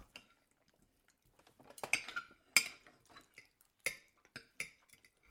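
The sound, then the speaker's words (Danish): Cutlery and dishes clink at a dinner table during a meal of chicken and salad, a scattering of sharp metallic taps and scrapes at irregular intervals, with no voices. “De spiser aftensmad. Kylling og salat.”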